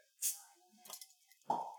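A single sharp pop of a beer bottle cap being opened with someone's buttocks, fairly quiet, followed by soft rustling and a brief louder burst of noise near the end.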